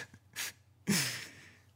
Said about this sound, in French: Non, d'un chien, je ne fais que de bailler. Voilà, c'est l'épisode du bâillement.